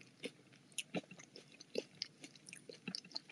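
Crunchy chewing of breakfast food eaten in front of a rolling camera, with irregular bursts of crisp bites and mouth sounds repeating every fraction of a second, fairly quiet and with no talking.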